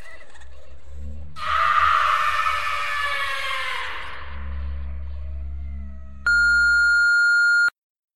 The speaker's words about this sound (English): So, leave your message after the screams of the condemned, and we'll get back to you as soon as we can.